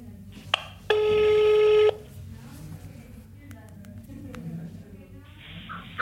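A brief dial beep, then a loud, steady telephone ringing tone holding for about a second, followed by quiet low murmur and another tone rising right at the end, as a call is placed to the Netherlands office of the Keysports Management agency.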